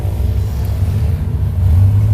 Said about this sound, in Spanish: Buena moto enfrente, obstaculizando el paso, tal y como corresponde a las motos en Escuintla.